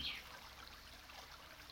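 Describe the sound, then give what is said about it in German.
A stream's water flows with a soft, steady trickling hiss, fairly quiet and continuous throughout, with no voices present. “Der kariotische Bach schreibt sich ins Gemüt. Geheimnis der fließenden Stimme.”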